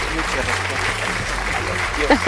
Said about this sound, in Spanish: No, man, en este momento hay un aplauso enorme para